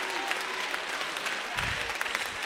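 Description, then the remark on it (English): An audience claps their hands in praise to God during worship, a dense, continuous wash of applause, steady and fairly loud throughout, with many overlapping claps blending into a crackling roar and a few sharper hits standing out. “Clap your hands, open up your mouth, and give God the highest praise in this house.”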